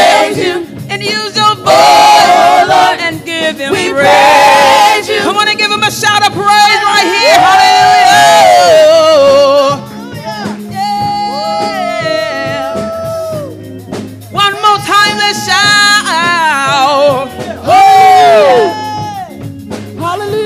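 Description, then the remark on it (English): A church audience at a praise worship service cheers and shouts excitedly, with many overlapping voices whooping and calling out loudly in continuous bursts that swell and dip over about twenty seconds. “Look at all these excited people in here.”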